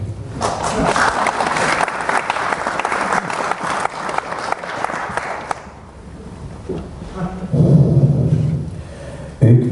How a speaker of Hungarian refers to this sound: Ebben a harcban példaképünk ez a két ápoló nő. Nővérkék, két bátor asszony a koraszülött osztályról. Nagy tapsot nekik,